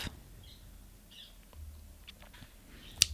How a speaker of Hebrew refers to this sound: יש את הציוץ ברקע, את שומעת? אני שומעת. אה, יפהפה.